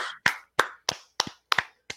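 Hands clap sharply about seven times in a steady rhythm, roughly three claps per second, as a round of applause for a music video, with a couple of claps sounding doubled. No one speaks.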